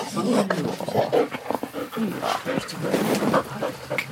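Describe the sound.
An assistance dog pants steadily at a dog training center in Mecklenburg-Vorpommern, Germany, on a very hot day: quick rhythmic breaths mixed with shuffling movement and occasional soft whimpers, with faint voices in the background.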